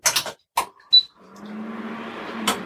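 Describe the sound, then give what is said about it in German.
A few clicks and a short high electronic beep, then a kitchen stove in a small kitchen hums on with a low steady drone and soft fan-like hiss; no one speaks. “so, geht auch schon der Herd an und wir können es einfach mal starten.”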